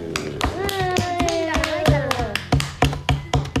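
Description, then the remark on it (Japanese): A short round of hand clapping, a dozen or so crisp, evenly spaced claps, with a voice vocalizing underneath during the first half. “はいパチパチはい拍手”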